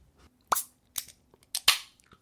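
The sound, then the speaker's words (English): A beer can cracking open: a few sharp, snappy clicks followed by a brief bright fizz of escaping gas, crisp and fairly loud with no talking. “That was a crispy crack.”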